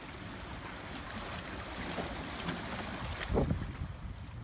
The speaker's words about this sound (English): So it's a little inlet, and the tide was coming in, and I'm sitting on a rock really close to the shoreline. So here's the sound one more time.